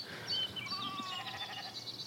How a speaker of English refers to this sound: Well, I can hear the lamb. Is that their lamb? Um, yep, you can hear the lambs.